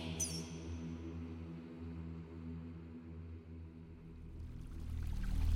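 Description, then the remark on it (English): River water trickles and babbles steadily beneath a low, droning hum, a continuous wash of sound that swells a little louder toward the end, with no voices. “The rivers of the underworld are not silent. They babble, they trickle.”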